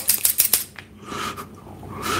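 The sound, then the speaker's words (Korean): A quick run of four or five crisp metallic snips from scissors blades, fairly loud, followed by a soft background hiss with no talking. “야, 가위날이 두 개인데, 요 놈이 이렇게 갈 때, 요 놈도 와야 돼.”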